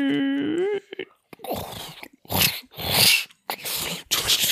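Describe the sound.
A voice imitates keys locking a door: a short tonal whine, then several noisy bursts of hissing, clicking mouth sounds mimicking jangling keys and a turning lock.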